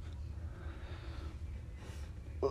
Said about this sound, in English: Oh fuck me, this hit, this hiccup fucking me up.